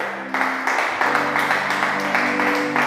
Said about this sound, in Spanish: ¿Por qué no le damos un aplauso a nuestro Dios?